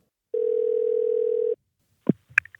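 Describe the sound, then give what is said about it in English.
A single steady telephone ringing tone sounds for just over a second as a phone call to Tim Pilge, president of Beta USA, is placed, then stops, followed by a few short clicks and knocks like a line being picked up. No one speaks. “So without further ado, let's get back into this phone call and this interview with the president of Beta USA, Tim Pilge.”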